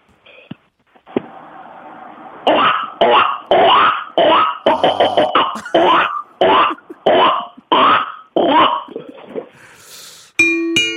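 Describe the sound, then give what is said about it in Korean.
A person imitates a duck, letting out about ten loud, raspy quacks in a steady rhythm, close to the microphone, followed by a short bright ding at the end. “다음은 그 오리가 꽥꽥 하는 소리를 할 수 있습니다.”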